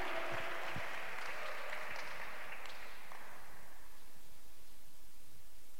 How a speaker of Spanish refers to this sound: Aplaude ya haz ruido y chifla y patalea porque tienes que demostrar al Espíritu que estás escuchando.